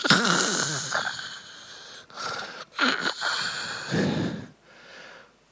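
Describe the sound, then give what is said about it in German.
A voice imitates loud snoring: four or five raspy, rattling breaths in quick succession, strong, the last one fading off softer. “Ab und zu kommt das Wasser rein und der Sturm und da kommt er unten an und dann hört er ein lautes Schnarchen.”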